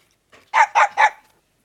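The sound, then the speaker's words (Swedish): A dog barks three times in quick, even succession, loud, after a faint short yip just before. No voices accompany it. It is the buzzer sound of the Ödkaby team on a quiz show. “En hund skulle jag kunna tänka mig”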